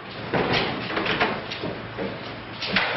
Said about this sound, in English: Later, two men run through a warehouse to open a set of doors, letting Duke drive his car inside. The doors are closed after him.